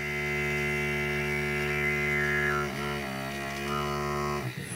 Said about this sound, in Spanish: Esto que suena no es un teléfono móvil. Es un succionador de clítoris.